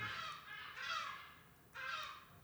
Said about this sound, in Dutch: Ja, sorry, ik woon in Den Haag en dan hoor je nog wel zeemeeuwen.